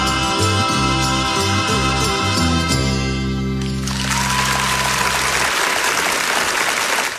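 The final chords of a band's acoustic performance ring out, then a crowd bursts into loud, sustained open-stage applause, a dense crackle of many clapping hands that carries on steadily to the end.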